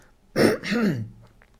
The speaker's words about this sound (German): Also wenn man sich räuspert, kann man sagen, das ist ein Abräuspern und Räuspern ist eine effektive Strategie, um schleimlos zu werden.